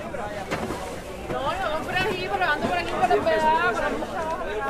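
Dense crowd chatter from many overlapping voices, steady, at a busy open-air market on market day in a neighbourhood of Havana, Cuba, with no single speaker standing out.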